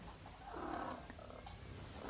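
The speaker's cat purrs, a steady low rumbling drone that continues unbroken for the whole moment with no voices over it.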